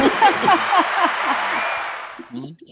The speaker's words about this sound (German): Entschuldigung, ich muss mal ganz kurz einen Applaus einstreuen.